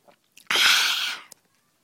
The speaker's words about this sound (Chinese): 刚刚那个是给我先喝酒发出来的声音。